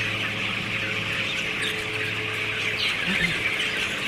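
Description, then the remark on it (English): A large flock of about 16-day-old broiler chickens clucks and cheeps in a poultry shed in a dense, continuous chatter, over a steady low mechanical hum, with no one talking. “Now, these birds are, like I say, about 16 days old.”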